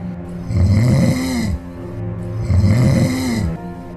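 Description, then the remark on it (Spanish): A wolf, lying fast asleep in a garden after a big meal, snores loudly and rhythmically twice in about four seconds, each deep rasping inhale rising and falling in a steady cycle, dominant with no talking. “El fuerte sonido de sus ronquidos llamó la atención de un cazador que se pasaba por allí.”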